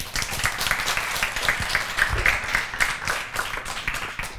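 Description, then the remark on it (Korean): A crowd applauds steadily, a dense wash of many hands clapping at a fairly loud, even level with faint rhythmic pulses running through it, and no voices on top. “박수 치시죠.”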